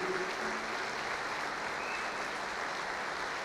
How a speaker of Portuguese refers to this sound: Vamos aplaudir, vamos aplaudir aqui esse parceiro querido.